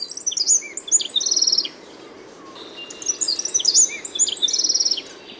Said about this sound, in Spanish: Las voces aflautadas del saltapared cejas canela repercuten en el bosque,